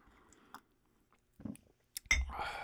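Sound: sipping coffee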